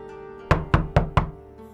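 Four firm knocks on a door in a quick, even rhythm, close and clear, with a faint steady hum underneath and no voices.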